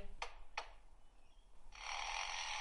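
A lyrebird mimics hammering: two sharp knocks about a third of a second apart, then a steady, bright mechanical buzz that holds to the end. No one speaks.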